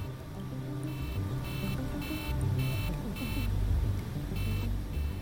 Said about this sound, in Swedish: När planet fortsatte att stiga till 3700 meters höjd började ett larm tjuta.